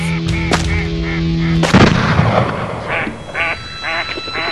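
Two loud shotgun blasts ring out a second apart, followed by a burst of honking and quacking from ducks or geese that continues in short calls to the end.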